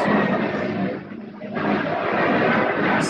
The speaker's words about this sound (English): Sorry, another plane. Yeah, sorry, I'm sorry about that.